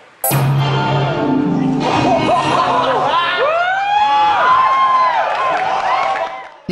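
A large crowd at E3 cheers wildly during Nintendo's 2001 reveal of Super Smash Bros. Melee as classic characters are showcased, a dense, sustained roar full of high whoops and rising yells that stays loud for several seconds before briefly easing at the end.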